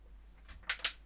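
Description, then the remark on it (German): Two quick, crinkly bursts of plastic being rustled, fairly quiet, each a brief crackle with no voices around them. “das ist Plastik.”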